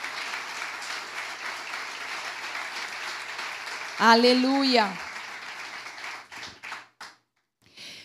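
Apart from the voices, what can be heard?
audience applause and clapping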